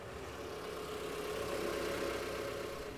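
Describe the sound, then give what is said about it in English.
A car engine hums and rumbles steadily for a few seconds, swelling slightly in the middle, a low continuous drone with no voices, as a black vehicle with no lights comes fast up a driveway toward a house at night. “she suddenly became quite sure she heard a car approaching the house”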